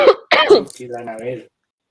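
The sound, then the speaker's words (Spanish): A woman with a slight cough gives two sharp coughs in quick succession, followed by a short voiced throat-clearing rumble that fades out, with silence after. “Ay, qué pena, que tengo tosecita.”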